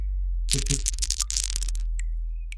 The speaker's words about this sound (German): Möchtest du würfeln? Ja, ich möchte lieber würfeln. Okay.